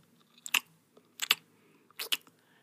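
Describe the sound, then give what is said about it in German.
Wet smacking of someone chewing gum in an empty laundromat after closing: three distinct mouth smacks at a slow, steady pace, with small clicks between them and no talking. “Schmatzend schaute er sich um, wie viel Dreck die Leute heute wieder im größten Waschsalon der Stadt hinterlassen hatten.”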